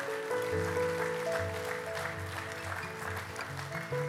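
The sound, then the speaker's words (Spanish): Church audience applause for people who raised their hands, a steady, dense patter of clapping that continues the whole time, mixed with sustained music chords playing underneath. No one speaks. “Amén qué no les damos un aplauso a, a estas personas que levantaron sus manos?”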